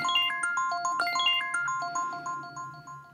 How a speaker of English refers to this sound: So, without further ado, I'm going to set my alarm and I'm just going to play the sound for you so you know what to listen for when the 30 minutes are up. This is what it sounds like.